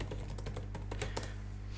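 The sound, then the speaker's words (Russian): Rapid keyboard typing of a search query, a quick burst of about a dozen clicky keystrokes over a steady low electrical hum, with no one talking. “Если мы вобьем этот ключ, что мы увидим?”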